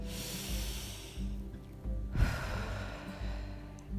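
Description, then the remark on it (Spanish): Slow breaths drawn in and pushed out through the nose, soft airy hisses rising and falling in an unhurried rhythm, fairly quiet, with a low steady hum underneath. “Inhala y exhala por tus fosas nasales.”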